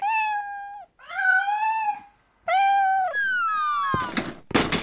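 A cat meows loudly, three long, drawn-out cries in a row, followed by a couple of short noisy scuffs or thumps at the end.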